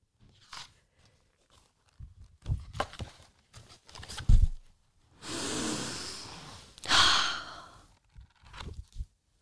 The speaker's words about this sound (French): Attention, je vais ouvrir le livre.